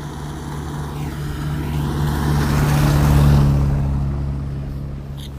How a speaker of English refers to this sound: So you're gonna stay here with me so you don't run into the middle of the road. Wait for the wait for the, the mail truck to go by.